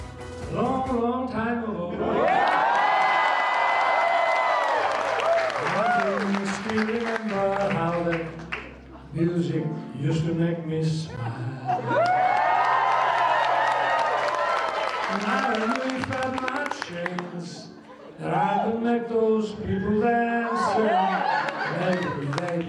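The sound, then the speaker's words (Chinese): At a White House state banquet, President Biden and the guests give sustained, warm applause in two long bursts around South Korean President Yoon Suk Yeol singing a melodic tune in the state dining room, with some chuckles and chatter between the bursts. “难得的好歌喉，也让拜登跟出席的宾客报以热烈掌声。”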